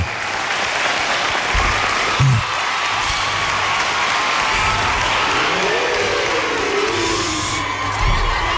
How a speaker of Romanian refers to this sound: Aplauze, vreau să aud aplauze. Aplauze, aplauze. În spate și voi în partea dreaptă.